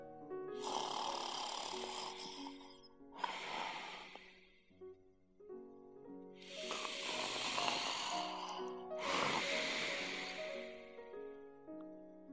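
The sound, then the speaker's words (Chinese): Four loud, rasping snores follow one another in a slow, steady rhythm, each a long, rough, buzzing breath with brief pauses between, and no talking. “小孩在打鼾的老奶奶身上，老奶奶在温暖的床上”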